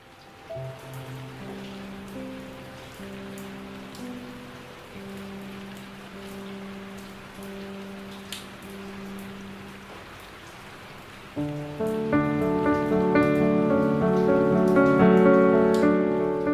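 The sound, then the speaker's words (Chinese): Light rain patters softly as a steady fine hiss, with a gentle melody of sustained tones playing over it that swells louder partway through. “雨静悄悄的下着，只有一点细细的声音。”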